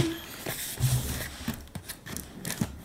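Scissors snipping in short, uneven strokes as the sides of a parcel are cut open, a few quick crisp cuts with rustling of the packaging in between, moderately quiet with no talking.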